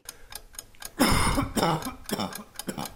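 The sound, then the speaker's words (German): A dry, irritated cough bursts out, a couple of harsh hacks followed by smaller rasping coughs, with faint ticking clicks in the quiet moments around it. “Das mit dem Husten ist schon komisch. Ein richtiger Reizhusten.”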